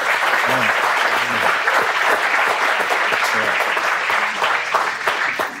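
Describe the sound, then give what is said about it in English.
A steady burst of audience applause in tribute to Kobe, dense and sustained for several seconds, with a few faint voices mixed in beneath the clapping. “So we should clap for, for Kobe.”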